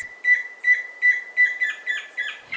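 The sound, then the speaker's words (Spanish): A tororoí chusquero antpitta, a Colombian bird about 22 cm long, sings a series of about eight clear, high whistled notes at a steady pace, each note rising slightly, repeated evenly with short gaps and no voices; a recording from the Colombian bird sound bank of the Humboldt Institute and Cornell University. “El trino del tororo y Chusquero forma parte del Banco de Sonidos de Aves Colombianas recopilado por el Instituto von Humboldt y la Universidad de Cornell.”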